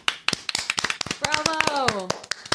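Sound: hands clapping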